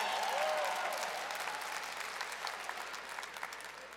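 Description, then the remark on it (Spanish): An audience of women applauds steadily during a marriage conference, a dense wash of many hands clapping that is loudest at the start and gradually thins and softens over a few seconds. “Gracias por este aplauso, muchachas.”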